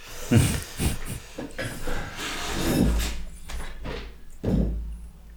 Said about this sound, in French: Alors, je vais juste faire un truc. Je vais ouvrir la porte à mon chat parce qu'elle gratte.